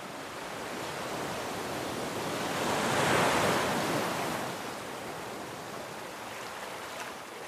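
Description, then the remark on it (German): Steady roar of sea surf at the cliffs south of Lisbon, Portugal, recorded at night: a broad wash of noise that swells louder around the middle as a wave breaks, then settles back into a continuous rushing hiss. No voices. “Hauptstadt Lissabon nach Süden gewandert und habe die Nächte draußen an den Klippen verbracht und dabei die Tonaufnahmen gemacht.”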